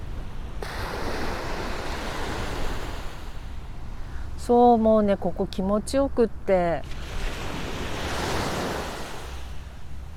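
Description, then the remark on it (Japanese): Steady ocean surf washes and breaks on the beach of the Shonan coast in Japan, a broad rushing roar with a swell near the end, while a woman talks briefly over it in the middle. “ただいま湘南の海岸から波の音をお届けしております”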